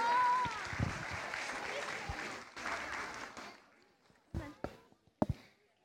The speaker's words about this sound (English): Okay. Um, children, it's now time to go back to your mums and dads. You've done an amazing job. Can we give them a round of applause, everyone?